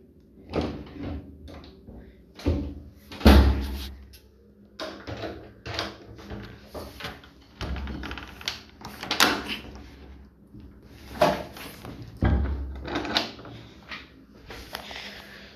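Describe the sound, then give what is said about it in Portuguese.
Someone wrestles with a door: repeated thuds, bumps and rattling knocks come in irregular bursts, with a heavier thump early on, as it is pushed and jiggled shut. “Pera aí, deixa eu fechar aqui a porta.”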